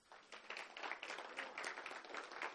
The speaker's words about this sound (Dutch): Zullen we de Heer een applaus geven?